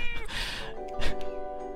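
A cat meows up close, a long drawn-out cry followed by a shorter second meow, clear and fairly loud with no talking.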